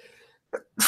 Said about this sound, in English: oh god, I've had to sneeze for the longest time ever. Okay, there we go. I knew it was going to come.